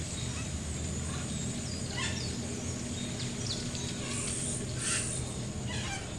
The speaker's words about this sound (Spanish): Visualizamos las comunidades indígenas a lo largo de la carretera y junto a ellas los sonidos de las diversas aves que forman parte de la mágica Amazonas